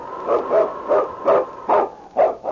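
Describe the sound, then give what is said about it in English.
A husky lead dog, Yukon King, of the Northwest barks repeatedly in a steady, rhythmic series of about six sharp, loud barks, with no talking over them. “It's Yukon King, swiftest and strongest lead dog of the Northwest, blazing the trail for Sergeant Preston of the Northwest Mounted Police in his relentless pursuit of lawbreakers.”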